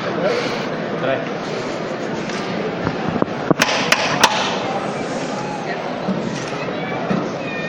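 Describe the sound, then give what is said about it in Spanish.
Three sharp, ringing knocks in quick succession call a religious brotherhood's bearers to make the first lift of a procession float. Acolytes in dalmatics hear the call. The knocks rise above a steady murmur of crowd voices and chatter. “Los, los acólitos con dalmática escuchamos la, la llamada.”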